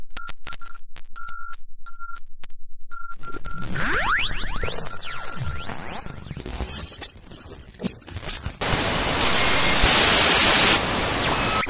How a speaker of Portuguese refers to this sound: Depois de muitos problemas técnicos, voltamos! Uma interferência absurda desses canais piratas por aí.